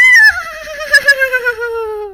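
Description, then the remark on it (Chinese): Three people together imitate a horse's whinny: one long, loud, high-pitched call that wavers and shakes midway, then slides steadily downward in pitch over about two seconds. “于是他们三人一起学马叫”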